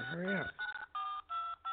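A rapid series of four telephone keypad dialing tones, each a short steady dual-pitch beep separated by brief gaps, sounding clear after a quick vocal sound at the start.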